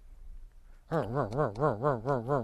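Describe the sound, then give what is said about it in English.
A voice imitates a car engine cranking over with compression, a steady rhythmic wavering drone like a sewing machine, pulsing about three times a second with compression-like surges, loud after a brief quiet start. “So it's a sewing machine sound, or it's got a compression to it.”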